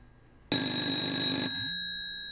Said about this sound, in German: Ich hoffe, dass hier nun im Studio gleich das Telefon klingelt, denn hier ganz in der Nähe vom Studio, da stand immer noch so ein Telefonhäuschen.